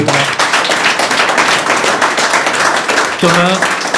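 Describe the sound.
Audience applause in Lyon for a guest, the director general of Priams, fills the whole stretch: a dense, steady crackle of many hands clapping at once, with a voice speaking over it briefly at the start and again near the end.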